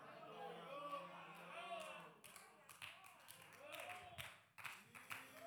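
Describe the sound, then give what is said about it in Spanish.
During a reading of Bible verses, one person claps a handful of times, sharp and somewhat irregular, while other voices keep talking underneath. No one else joins in. “Ese aplauso salió al trítico ahí. Pero nadie más aplaudió.”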